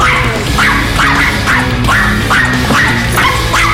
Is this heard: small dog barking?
yes